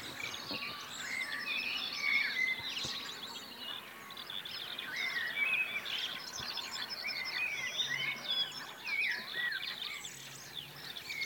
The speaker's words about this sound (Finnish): On toi mustarastos. Upea ääninen lintu. Se on kyllä kevään hienoimpia laulajia. Ihan varmasti.